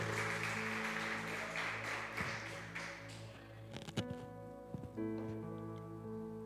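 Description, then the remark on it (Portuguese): A crowd claps steadily to Jesus for a few seconds, a dense patter of many hands that fades out, while sustained keyboard or organ chords ring underneath and carry on after the clapping ends. “Quem crê aplaude a Jesus, então, glória a Deus.”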